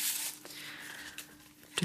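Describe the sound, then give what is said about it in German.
Soft rustling and crinkling of several rolled-up paper notes, tied with a white ribbon, being handled and unrolled after the ribbon is opened, with a few brief sharper crackles, quiet and continuous with no talking. “Oh, es raschelt so schön.”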